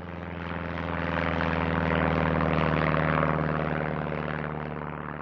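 A propeller airplane drones overhead, its steady buzzing engine tone swelling slightly louder through the middle before easing off a little toward the end. No voices.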